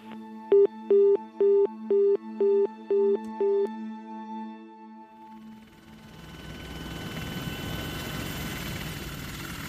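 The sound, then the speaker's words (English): A police helicopter with heat detection gear searching the Matapihi Peninsula: its rotor noise swells into a steady, broad roar in the second half, following a run of seven evenly spaced tonal beeps at the start. No one speaks. “They had helicopters with heat detection gear and used ground penetrating radar.”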